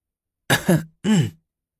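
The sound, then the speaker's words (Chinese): Two short, rough coughs from behind a curtain in quick succession, the second following after a brief pause, with a throaty, throat-clearing quality. They sound moderately loud, with silence before and after and no talking. “帘子后边又咳嗽两声”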